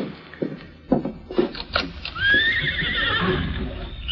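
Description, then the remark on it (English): A few hooves stamp and shuffle, then the horse Silver lets out a loud, drawn-out, impatient whinny that wavers and trails off, with no one speaking. “So that's the horse I've heard so much about. He's not often impatient.”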